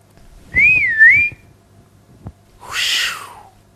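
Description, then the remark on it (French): A person whistles with the mouth a short, wavering two-part tune that rises and dips, followed after a brief pause by a breathy, noisy whispered voice, both clear. “Vous avez entendu un sifflement, une voix chuchotée.”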